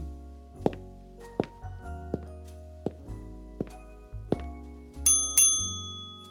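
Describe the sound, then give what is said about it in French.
The reception desk bell of the Cadogan hotel is struck again and again, each clear ding ringing out with a lingering metallic tone. The last few rings are brighter and quicker. No voices. “Eristoria présente La sonnette du Cadogan.”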